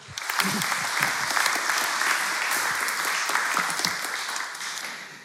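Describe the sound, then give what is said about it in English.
Sustained applause from an audience welcoming a bishop as he comes to speak, a dense wash of many hands clapping at a steady loudness for several seconds before easing slightly at the end. “And um, so can we give a massive round of applause to Bishop Paul as he comes to speak?”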